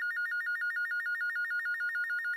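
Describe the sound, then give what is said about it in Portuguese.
A telephone rings with a rapid warbling electronic trill, a fast alternating two-tone pattern repeating steadily and loudly throughout, with no voices. “Então vou atender aqui o telefone.”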